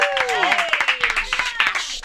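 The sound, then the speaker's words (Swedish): A short burst of applause in the Riksmorgon Zoo studio on a Friday morning, welcoming a guest: quick, irregular claps from a few people, with voices talking and calling out over them the whole time. “en liten applåd för det tycker jag.”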